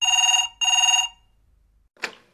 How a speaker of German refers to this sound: Irgendwo in der Wetterau klingelt ein Telefon. Der Anschluss gehört einem älteren Herrn, der anonym bleiben soll.